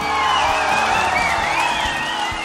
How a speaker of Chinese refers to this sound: 正如刚才陈总所言呐，咱们犀牛日报已经正式入驻一脉合成 APP 啦！掌声和欢呼声在哪儿？